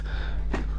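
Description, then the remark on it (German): A single short sneeze, a sudden breathy burst partway through, over a low steady electrical hum with no talking. “weißt du das? Gesundheit.”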